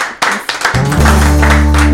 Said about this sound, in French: Allez, je pense qu'on peut applaudir le programme Volbachia.